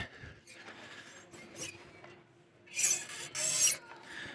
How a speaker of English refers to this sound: You hear that? That is an intentional sound that we have applied to every chair here at Echo. It is something that um, we have inserted into our service experience so that we know when you're coming in late.